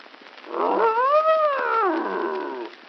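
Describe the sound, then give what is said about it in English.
A bear lets out one drawn-out, moaning growl that swells in pitch and then sinks, lasting about two seconds, loud with no one speaking. “Nice bear. Good old bear.”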